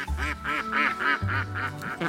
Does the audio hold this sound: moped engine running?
no